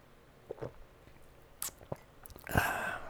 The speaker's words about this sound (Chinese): 好了，那我来喝一下我的我的沙士啊。